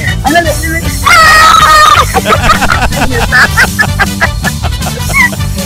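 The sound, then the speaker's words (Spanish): A loud, high-pitched joyful scream from a contest winner rings out for about a second, followed by excited shouts and lively chatter from several people over a busy, noisy background. “¡Ahí no Ta, ta, ta, que se escuche ese grito de alegría, hombre.”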